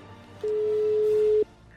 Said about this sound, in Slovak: Vytačam.